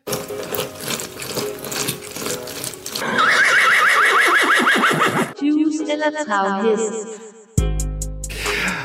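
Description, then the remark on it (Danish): A horse whinnies loudly in a short, busy quiz jingle, its shrill neighs coming in the middle between bursts of rhythmic, clattering, machine-like sound effects, with no talking. “Første kategori, det er juice eller travhest.”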